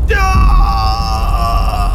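A man lets out a loud, drawn-out yell of pain, strained, holding one sustained cry for about two seconds with a low rumble underneath.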